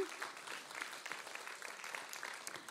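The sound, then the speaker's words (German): An audience at a church communion service claps steadily in thanks to those serving communion, a dense patter of many hands sustained at an even level for a few seconds, with no voices standing out. “Ein Applaus für die Schäfers, die das echt möglich machen.”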